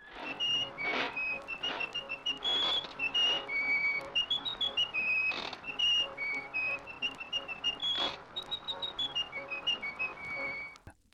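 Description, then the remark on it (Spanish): A jaunty cartoon tune, the most famous whistle in animation, whistled clearly and hopping between bright notes, with occasional sharp clattering bursts mixed in behind the melody and no talking. “Un resultado involuntario fue el silbido más famoso de la animación y el objeto de muchos memes hoy en día.”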